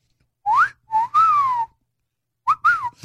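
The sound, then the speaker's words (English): Two wolf whistles in a row, each a sharp upward sweep followed by a longer gliding fall. They're loud and clear, with no talking over them. “Wolf whistle could become a hate crime in London, say police.”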